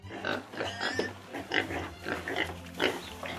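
A pig oinks and grunts in a quick series of short, snorting bursts over about three seconds, moderately loud, with no talking.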